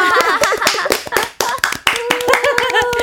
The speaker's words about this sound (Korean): 우리 오늘 너무 즐겁게 잘 놀았으니까 네. 각자 자, 자신에게 음, 박수 한번 보내요.